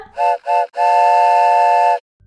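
A train whistle sound effect introducing a "Word Train" vocabulary segment sounds two short toots followed by one long, steady blast, its loud chord-like tone holding a constant pitch throughout. No one speaks.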